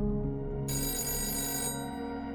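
A telephone bell rings steadily with a bright, buzzing metallic tone for a phone call to a family home one evening, one sustained ring burst in the middle, fairly loud, with no one talking.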